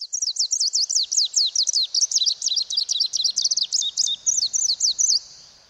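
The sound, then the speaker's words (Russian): A greenish warbler sings a fast, rhythmic run of squeaky, high whistled notes, repeated in quick bursts for several seconds, clear with no talking. “Звучание песни «Зеленой пеночки» часто сравнивают со звуком трения пальца о стекло”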